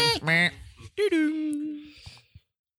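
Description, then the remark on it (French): A person imitates the buzzer of the quiz show Questions pour un champion with a nasal, honking vocal burst followed by a long steady buzzy drone, ending with a short click. “On peut faire le, bruit du buzzer de question pour un champion.”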